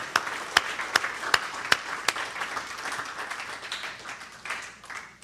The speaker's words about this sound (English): Come on, give the Lord a hand clap of praise this morning. Hallelujah.